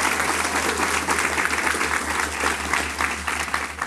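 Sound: applause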